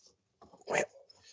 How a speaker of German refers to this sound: Das war mein Hund, der hat geschnarcht.